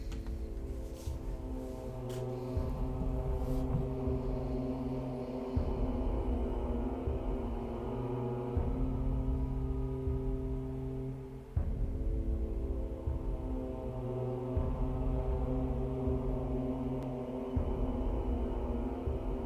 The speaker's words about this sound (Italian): Fino al giorno, e chiudiamo un attimo gli occhi e mettiamo sta musica angosciante e terribile.